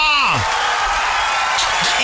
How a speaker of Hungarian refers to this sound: Életem legnagyobb tapsa.